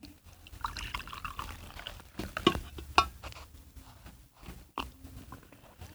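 Coffee pours steadily into a cup for a few seconds, with soft splashing and a couple of clinking taps of ceramic, fairly quiet, with no one speaking.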